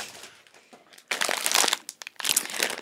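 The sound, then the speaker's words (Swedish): Crinkly packaging of kruidnoten, small gingerbread-like biscuits, rustles and crackles in bursts, starting with faint scattered crinkles, then swelling into loud, dense crunching that briefly pauses and resumes. No one speaks. “Ja, det här kommer prassla jättemycket för er.”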